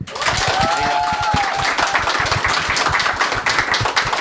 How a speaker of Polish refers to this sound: I wielkie brawa i podziękowania dla publiczności na żywo w resorcie komedii.